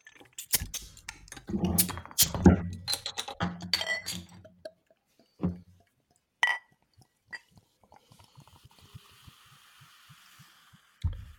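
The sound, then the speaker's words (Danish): Beer bottles are opened with sharp clanks and a hiss, glass clinks, then beer pours and a soft fizzing trails off as the glasses fill. No voices are heard. “Så øh, nu øh, lad os, åbne, øh, lad os åbne øl, og få dem hældt op.”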